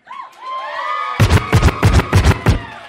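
A crowd cheers, starting with rising whoops and shouts, then breaking into loud, rhythmic bursts of noise, about five in a steady beat, like chanting or clapping in unison.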